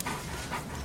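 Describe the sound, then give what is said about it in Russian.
A dog choking while eating, with two rough, breathy gagging bursts in quick succession over a steady low rumble. No one speaks. “Я же слышу, что давишься.”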